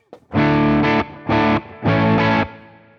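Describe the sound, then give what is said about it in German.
Overdriven electric guitar through a Tube Screamer pedal, playing three loud sustained chords in a short rhythmic pattern, with a thick, harmonically rich distorted tone and a brief pick noise at the start. “Gut, der Tube Screen ist lauter.”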